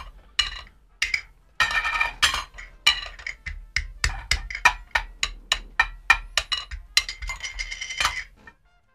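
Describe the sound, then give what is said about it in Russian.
Tin lids clink together over and over, a quick irregular run of bright metallic knocks and rattles, fairly loud, speeding into a clattering flurry before trailing off. “Может, жестяные крышки? Класс!”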